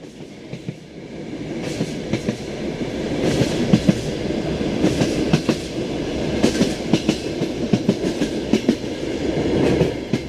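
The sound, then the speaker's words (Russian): A moving train rumbles steadily along the rails, with repeated sharp clattering clicks from the wheels over the track joints riding on a continuous low roar. No voices. “И поезд уже поехал.”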